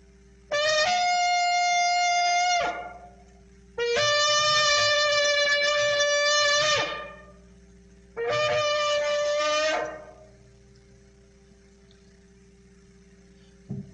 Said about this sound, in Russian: Если позволите, я протрублю в шафар, как это делают евреи в земле Израиля, перед тем, как помолиться.